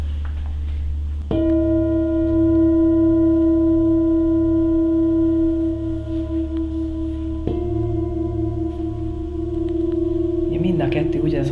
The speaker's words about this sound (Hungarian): ha már így megnézzük a hangtálakat, akkor megmutatnám a két gyógyító hangtálamból is a férfi és a női tálat.